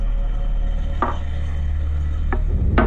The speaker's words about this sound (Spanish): El sonido de la tierra sobre mi ataúd era tan fuerte que cubría el sonido de mis propios gritos.